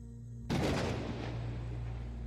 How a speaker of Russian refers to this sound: Первый удар грома пришел внезапно, без весточки в виде молнии. Стекла зазвенели, показалось, что даже здание вздрогнуло.